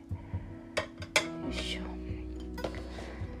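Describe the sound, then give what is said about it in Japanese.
Plates and cutlery clink in three or four sharp, scattered knocks, moderately loud, over a low steady hum with a faint murmuring voice in the background, as plates are brought over to share out a soft, fluffy food that was cut the day before. “お皿を持ってこちらの方でいただきたいと思います”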